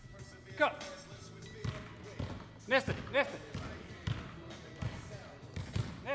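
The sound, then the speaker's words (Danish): Basketballs thump against a hard gym floor in scattered, overlapping bounces as players do gymnastics exercises as basketball training, with voices calling out briefly over the rhythm of the dribbling. “Det vi jo hører her, det er, når de her spillere de laver øvelser fra gymnastik, så bliver de faktisk bedre til basketball.”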